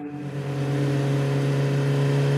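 A motorcycle engine hums steadily, its droning tone holding even and loud for a couple of seconds, with no voices, as a woman rides it with her daughter 6 kilometres to the centre of Tonatico, State of Mexico.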